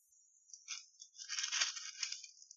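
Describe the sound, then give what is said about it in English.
A large burger patty with a dent in the center sizzles in a hot pan, a steady high hiss laced with crackles that swells midway, at low volume with no voices. “Hear that sizzle.”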